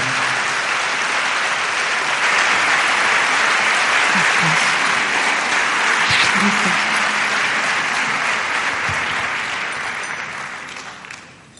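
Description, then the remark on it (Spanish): A large audience in Albacete claps steadily to welcome a speaker, sustained, dense applause for several seconds before gradually tapering off at the end. “Con un fuerte aplauso,”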